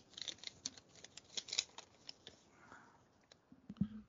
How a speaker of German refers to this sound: Ähm, ich würde sagen, wir liegen einfach los und ich werfe meine, mein kleines Händchen in die Lostrommel und bin gespannt.